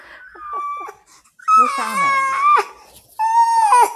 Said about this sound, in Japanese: 赤ちゃんがすごい、いいタイミングで赤ちゃんが泣きましたけど。